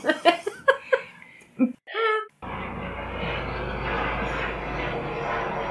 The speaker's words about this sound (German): Helikopter so. Ja, Helikopter.